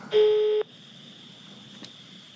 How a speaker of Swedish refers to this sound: Så vi ringer väl upp Vi ringer upp och, och ser hur det funkar med teknik mm. och allt. Ska vi sätta det på högtalare också?